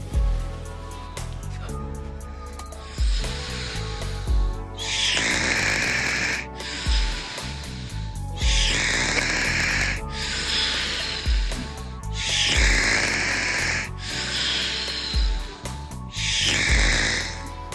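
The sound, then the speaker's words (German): A person snores loudly, with about seven raspy, breathy snores in a slow, steady rhythm, each drawn-out inhale separated by short pauses. No one talks. “machen wir ein bisschen Schnarchen von …”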